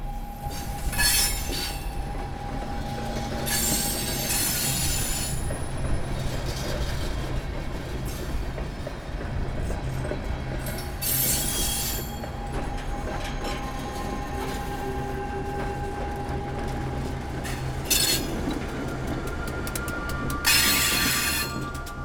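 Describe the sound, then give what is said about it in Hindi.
A train rushes at speed through a station without stopping, a steady loud rumble of wheels on rails with repeated bursts of high metallic squealing and hiss throughout, no voices. “और वक्त के साथ उस स्टेशन का खौफ इतना बढ़ गया कि उस स्टेशन पे रुकना तो दूर स्टेशन आने के पहले ही ड्राइवर गाड़ी की स्पीड बढ़ा देता ताकि ट्रेन जल्द से जल्द उस स्टेशन से गुजर जाए”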